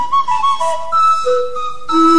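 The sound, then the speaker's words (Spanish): Tuned steam whistles of a steam-heated instrument, which had to be refilled with water and reheated, play a short melody of sustained, shifting notes, loud, with a breathy edge and no voices. “Había que cargarle agua, calentarlo de nuevo, hacer toda una movida que no, no podía tener mucho, mucho tiempo de uso.”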